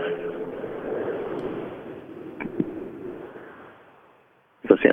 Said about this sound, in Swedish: Den där bilen hör man ju. Den hörs väldigt tydligt.